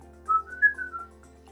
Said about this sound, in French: Et il y a également des dialectes un petit peu particuliers, composés uniquement, seulement de sifflements, euh, qui continuent d'exister. Les sifflements, donc, vous voulez dire siffler comme...